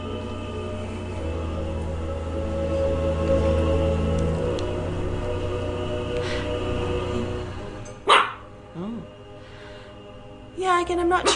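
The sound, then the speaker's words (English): A dog barks a few times near the end, short sharp yelps after a long stretch of steady low humming background noise, moderately loud. “Is he Candyman. barking Candyman?”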